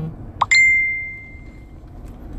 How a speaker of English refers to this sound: Those beeps are little text messages that are coming in and there's going to be about a fucking million of them here because it's all my Marine buddies talking about whether they're going to be here for the birthday.